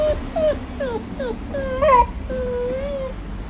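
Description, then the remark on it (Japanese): A dog waiting for its morning food whimpers in a series of short, high-pitched whines, ending in a longer drawn-out whine, over a low background hum with no talking, in Sapporo. “くんくん泣いては右手ちょんちょんしてまだかなまだかなってお利口ちゃんに待ってます”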